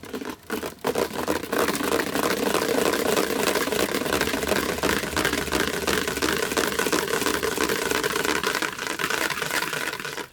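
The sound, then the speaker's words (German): A mixer runs, blending soft-serve ice cream mix with a loud, steady whir and a churning, slightly gritty texture that holds for about ten seconds after a brief start-up. “Das war, das war dein äh, Mixer.”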